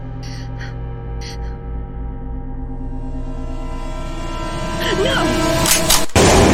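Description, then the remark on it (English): A single loud, sharp magnum revolver shot cracks out near the end, preceded by a steady hum and a couple of brief harsh squawks early on. “I just can't believe you shot him. Where did you even get the gun?”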